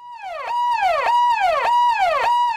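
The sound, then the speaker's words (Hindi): A police car siren wails in fast, repeating swoops, rising and falling about every half second, as the police car arrives in an area of India during the coronavirus lockdown. It is loud, with no voices over it. “देश के कई इलाकों में पुलिस और लोगों के बीच आंख मिचोली का खेल चल रहा है पुलिस की गाड़ी आती है”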